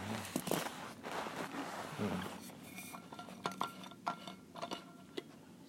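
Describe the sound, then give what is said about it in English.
Someone making a cup of tea: cups and cutlery clink and tap in irregular, sharp bursts over soft shuffling and handling noises, with no one speaking. “I have to have a cup of tea.”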